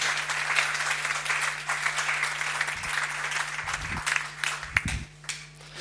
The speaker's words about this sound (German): Ganz herzlichen Dank euch beiden. Gebt ihnen doch nochmal einen Applaus. Vielen Dank euch.